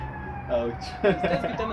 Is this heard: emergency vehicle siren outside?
yes